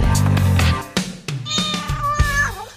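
A cat meows a few times in quick succession, drawn-out cries that bend up and down in pitch, heard clear over a low background hum.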